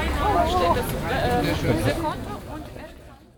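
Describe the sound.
A busy outdoor market crowd at the Winterfeldtmarkt murmurs and chatters, many overlapping voices blending into a steady hubbub that gradually fades toward the end.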